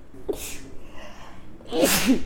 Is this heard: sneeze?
yes